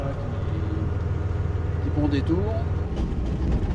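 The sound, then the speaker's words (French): A heavy train engine drones steadily as the train sets off after the whistle toward Ambert, France, a low rumbling hum that holds throughout, with a few faint higher squeaks and rattles over it. “Dernier coup d'œil, c'est parti on bien le moteur”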